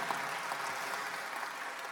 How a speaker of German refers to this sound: Lasst Gott einen Applaus geben.